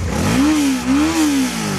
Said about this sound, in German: muss sich das angehört haben vorgestern auf der Horster Straße. Mit mehr als 150 Sachen war ein Motorradfahrer in Bur unterwegs, weil er vor der Polizei geflüchtet ist.